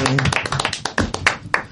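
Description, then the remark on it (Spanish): An audience breaks into applause: many hands clapping in a dense, uneven patter that stays loud throughout, with a few sharper claps standing out and faint voices underneath at the start. “Bueno, chicos, pues sin más, un aplauso para esta gente Y adelante.”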